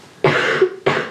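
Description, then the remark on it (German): A person coughs twice loudly in quick succession, the first cough longer and raspier, the second a short sharp burst, with no talking around them. “Ich hab gehustet.”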